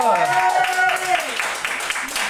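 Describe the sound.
Audience applause, a steady wash of many hands clapping at a fairly loud level, with a pitched voice or whoop sliding through the noise near the start.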